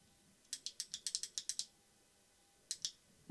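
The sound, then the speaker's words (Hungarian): A quick run of about ten small, crisp clicks from a pen being fiddled with, then a short pause and a few more, fairly quiet with no voices. “Most a tollammal.”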